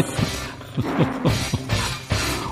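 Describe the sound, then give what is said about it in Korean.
A tiger roars in a series of deep, rumbling bursts, five or six low growls in quick succession, loud against a steady background. “호랑이가 지금 포효하고 있습니다.”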